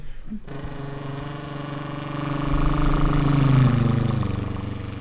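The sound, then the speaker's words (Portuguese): A voice mimics a twin-engine airplane with a steady, buzzing low drone that swells louder and rises slightly in pitch midway before easing off, held continuously for about five seconds. “Mas avião bimotor também.”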